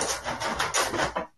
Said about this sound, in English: Sorry, excuse my dog.